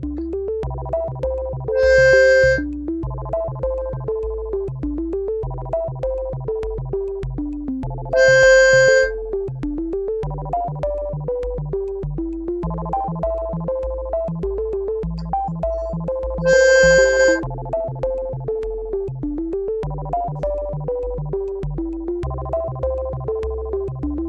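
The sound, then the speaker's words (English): A miniature flute sounds three sustained, pure tones, each lasting about a second, rising clearly above a soft, continuous melodic music bed with a low drone. No one speaks. “That sound you just heard is from a precisely crafted miniature flute called the Love Tuner.”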